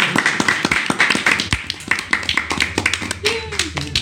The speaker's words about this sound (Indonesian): Dan sore hari ini seperti biasa kita kedatangan eh, teman-teman uh, teman -teman musisi kali ini dari Yogyakarta. Boleh beri tepuk tangan